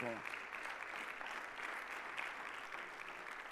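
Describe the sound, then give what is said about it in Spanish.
An audience claps steadily in a dense, continuous wash of applause that holds at an even level throughout, with a brief trace of a voice at the very start. “Aplaude, Señor, el otro verso.”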